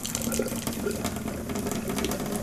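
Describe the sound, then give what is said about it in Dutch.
Hot water runs steadily into a sink, a continuous splashing gush with a slight rising fill tone, fairly loud throughout. “De, mijn, ah, ik heb te veel heet water in gedaan. Mijn wasbak doet dan boem als die uitzet door het hete water.”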